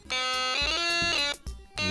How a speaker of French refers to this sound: Donc petit inventaire des buzzers tout de suite